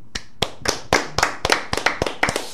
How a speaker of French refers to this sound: niveau d'applaudissement, donc ceux en studio qui votent pour